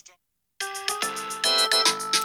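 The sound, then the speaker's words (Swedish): A phone rings with a bright, melodic electronic ringtone, loud, its repeating tonal notes starting abruptly after a brief moment of near silence. “Så ringer det här. Det ringer.”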